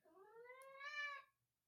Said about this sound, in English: Very dramatic, cat. Tell me of your woes. Sing me the song of your sadness.